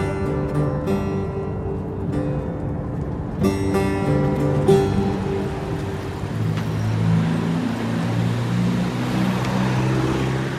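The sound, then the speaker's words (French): Steady road traffic in Iran, many of the cars Peugeots, with engines droning and revving as vehicles pass, a continuous low rumble that swells and shifts in pitch, moderately loud, with no voices. “Ce qui est étonnant ici, c'est le nombre de voitures Peugeot que l'on croise sur les routes.”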